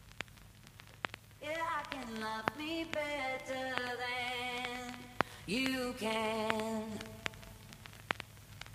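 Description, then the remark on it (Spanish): A short teaser of an upcoming pop single, shared on the artist's Twitter ahead of its January 13 release: a lone voice sings a slow melody of sustained, gliding notes in a few phrases, over a faint crackling, static-like background with occasional sharp clicks. “Este es el sonido de su próximo sencillo, de ese próximo trabajo discográfico que se estrena el próximo 13 de enero.”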